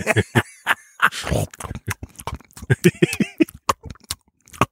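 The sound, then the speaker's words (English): A voice mimics gulping and choking, a rapid run of short, wet, throaty gulps and gagging grunts, fairly loud, with no actual words. “And then the always pleasant, uh, they start hearing gulping and choking sounds.”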